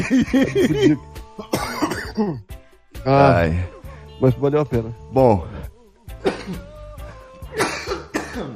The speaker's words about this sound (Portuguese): me preparei muito, depois que tava, que tava bem preparado, pensei, basta são só cinco tossidas.